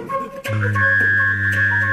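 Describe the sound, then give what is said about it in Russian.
A person hums a low, steady tone and whistles a thin, high tone at the same time, both held as sustained tones for over a second, fairly loud, producing an odd buzzing, droning blend. “А, а ты знаешь, я умею дудеть и свистеть одновременно.”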